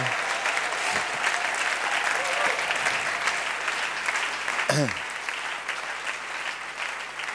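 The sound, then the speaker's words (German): A crowd applauds steadily for several seconds, a dense, even wash of clapping that stays loud throughout, with a brief voice or cheer rising partway through. “auch nochmal einen kräftigen Applaus.”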